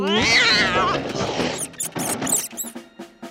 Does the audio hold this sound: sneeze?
no